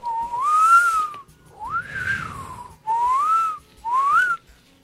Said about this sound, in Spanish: Sí, ya sé chiflar.